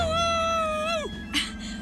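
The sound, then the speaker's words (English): A voice imitates a train whistle with one long, steady, high hoot that slides downward at the end, fairly loud, followed by a short, sharp squeak. “he is all about the train. He does the woo woo thing at least three separate times.”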